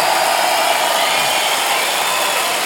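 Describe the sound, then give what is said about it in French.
A big crowd in Lausanne cheers and shouts in a loud, continuous roar that holds steady for a few seconds, with no single voice standing out. “Alors, mesdames, messieurs, montrez-moi ce soir qu'on est à Lausanne et qu'on n'est pas à Montreux. Faites du bruit, faites du bruit, faites du bruit, faites du bruit, faites du bruit, faites du bruit, faites du bruit.”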